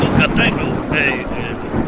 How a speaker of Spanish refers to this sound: ya se oye la lluvia, seguramente vas a morir por un rayo.